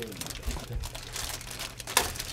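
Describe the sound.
Continuous crinkling rustle of leaves being handled, with a sharper crackle near the end and soft voices murmuring underneath.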